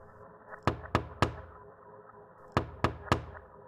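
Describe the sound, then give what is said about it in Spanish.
Three sharp knocks on a window glass, a short pause, then another group of three in the same even rhythm, each tap crisp and bright over a low steady hum. “Tres golpecitos en la ventana, luego otros tres, y otros tres, y así se repetían.”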